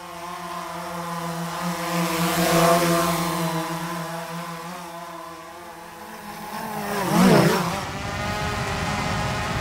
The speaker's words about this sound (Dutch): Een drone.